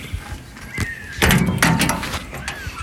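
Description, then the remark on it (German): A vehicle's large rear door (tailgate) opening: a mechanical click and a rising whir, then two heavy clunks as it swings and latches into place, with no voices. “Wir können uns immerhin mal anhören, wie die große Hecktür klingt. Die hast du uns als Geräusch aufgenommen.”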